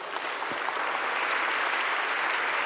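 A room full of people applauding steadily, a dense, continuous wash of clapping that holds at an even level throughout without any voices standing out.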